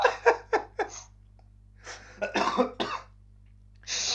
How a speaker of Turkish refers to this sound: Bu arada e, şu ana kadarki ve bundan sonraki öksürüklerim için özür dilerim. E, böyle minik bir hastalık var diyelim.